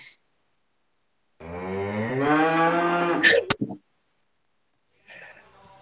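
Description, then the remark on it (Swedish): A rutting moose lets out one long, loud, drawn-out bellow lasting about two seconds, ending in a few sharp knocks, followed later by a fainter, shorter grunt. “Det var en brunstig älg.”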